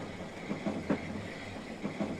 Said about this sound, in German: Der Eisenbahnwaggon ratterte über die Schienen, die Sitze vibrierten, die Türen klapperten erbärmlich.